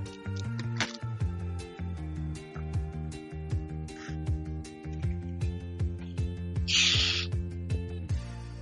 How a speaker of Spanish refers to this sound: Ruido de terere. Ruido de terere.